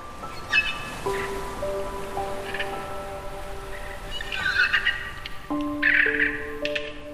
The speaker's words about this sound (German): Ist das toll! Du kannst die Sprache der Delfine verstehen.